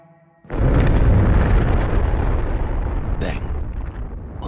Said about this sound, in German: Wenige Wochen später explodiert die erste Atombombe der USA.